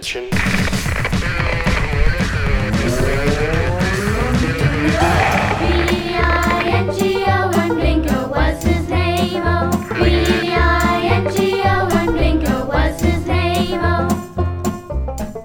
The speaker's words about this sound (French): il est temps de passer à la chronique de Bingo. Générique.